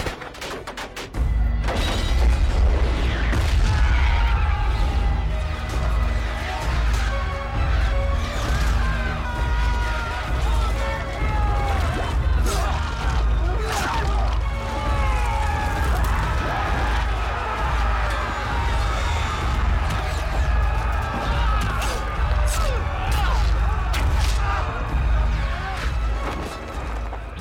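A dense, chaotic battle soundscape depicting fighting after Malahayati's troops surround the Dutch trade office, with rumbling explosions, crashes and bursts of gunfire layered over a continuous low roar, loud and sustained throughout, with faint shouting voices in the mix.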